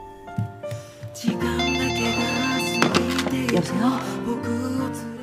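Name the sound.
telephone ringing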